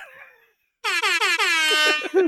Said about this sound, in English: That's the uh, DJ air horn version of the jetpack. I need to have that up so I can do it randomly here.